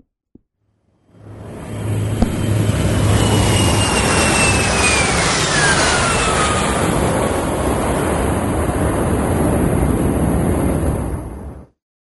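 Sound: jet airplane engine roar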